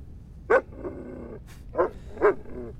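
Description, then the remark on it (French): A dog barks three times in short, sharp bursts, with a quieter whine or growl in between, with no one speaking. “T'es courageux, mon chien.”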